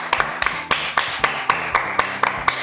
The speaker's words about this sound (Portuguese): Palmas